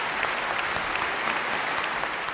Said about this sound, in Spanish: Fuerte aplauso para todos vosotros. Muchas gracias familia.